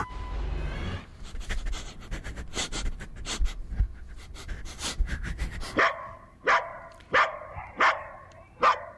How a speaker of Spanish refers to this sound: Bueno, pues Eclipse, ya les decía, no es humano, es perro, es perra. Es, peludita, es juguetona, es expresiva, es muy, muy independiente, de, hecho. Es una perra labrador de Seattle, en Estados Unidos.